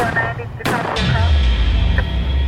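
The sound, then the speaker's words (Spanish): Two sharp, loud gunshots ring out about a third of a second apart, followed by a low rumbling boom and a fainter snap, over a dense, noisy background with faint voices. These are shots in Bruce Jeffrey Pardo's attack, heard by a 911 operator while a survivor called the authorities. “La operadora del 911 escuchaba tiros y se alarmó aún más.”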